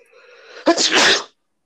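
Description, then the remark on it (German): A single loud sneeze: a short breathy intake followed by a sharp explosive burst that trails off in a hissy spray, then silence. “Gesundheit. Danke.”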